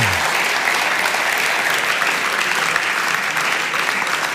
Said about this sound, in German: Komm, lass uns ihm einen Applaus geben, den Herrn an Herrn.